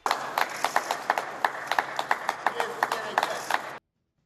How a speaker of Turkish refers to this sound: Ülke genelinde sağlık çalışanlarına destek dünyanın birçok yerinde olduğu gibi alkışlarla gösterildi.